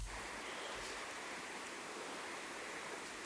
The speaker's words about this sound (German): Wer fährt da Auto?